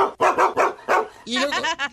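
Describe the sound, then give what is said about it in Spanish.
People mimic a dog with a string of loud barks and yips, short rhythmic woofs followed by higher, whiny bark-like cries, all voiced by humans rather than a real dog. “Y todos nosotros hacemos esto, ¿eh? Y todo por dejar a su perro en el carro encerrado al perro.”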